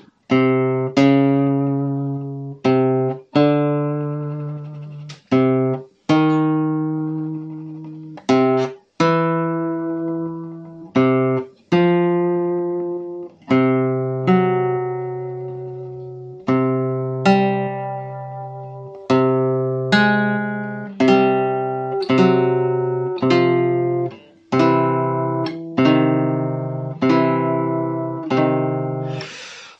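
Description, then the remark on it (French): A steady low note sounds again and again while a second tone above it changes each time, forming a series of two-note intervals over the same fundamental for ear training, in a clear, synth-like timbre with no voices. “Donc ce que je te propose, c'est toujours au départ de la même fondamentale d'aller écouter, d'incruster les différents intervalles dans ton oreille.”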